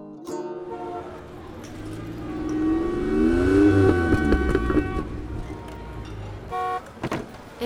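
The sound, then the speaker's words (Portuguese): A taxi, called in the early hours of the night, approaches with a swelling engine rumble, then its horn sounds in a few short honks. Fairly loud, with no voices. “Depois chamou um táxi.”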